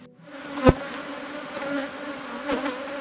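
A steady, droning buzz of many honeybees around a hive in the Yangambi landscape, bees that forage on acacia flowers, humming continuously for a few seconds, with two sharp clicks or knocks breaking through; no one speaks.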